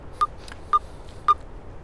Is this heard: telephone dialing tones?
yes